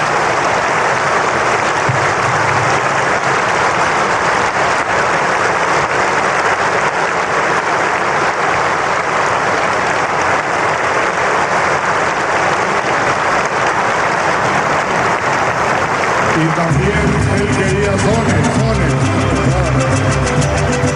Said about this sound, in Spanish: Vamos a darle un grande aplauso.